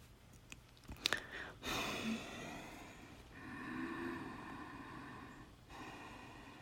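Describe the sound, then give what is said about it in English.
Ujjayi breath, also called victory or ocean breath, made by narrowing the back of the throat as if snoring: one long, raspy inhale followed by a longer hissing exhale, soft and wave-like, with no talking. “So, what we're doing is we're narrowing the space in our throats as if we are snoring. It's like a hissing sound or an ocean sound.”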